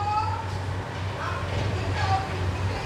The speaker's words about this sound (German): Die Kinder aus der benachbarten Grundschule